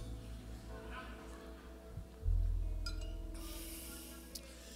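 A quiet sip of water from a glass, with a soft slurp and breathy noise, then a faint clink as the glass is set down, against low background hum.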